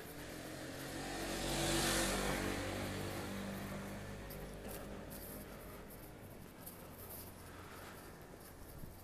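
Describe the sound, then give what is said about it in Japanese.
A motorcycle engine swells in from the street, roaring loudest for a moment as it rides past, then fades gradually against low outdoor background noise. “あバイクが来ますね”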